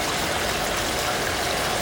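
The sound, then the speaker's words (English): Steady rain hissing without pause, a dense, even wash of watery noise across the whole moment, with no voices and no distinct drops standing out. “Because I'm I'm standing in the rain and thinking about the monarchy, and uh, yeah it's uh, it's grim.”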